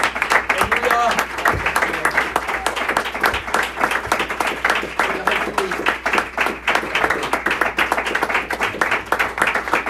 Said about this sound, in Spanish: Le damos un aplauso al Señor Jesús, hermanos.